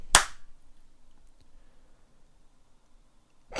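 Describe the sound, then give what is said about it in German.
Two sharp, loud smacks of hands slapping on buttocks, one at the start and one at the end, with a long stretch of near silence between them. “Okay, Zeit, die Hände auf dem Arsch zu klatschen, denn es ist Pimp-Zeit.”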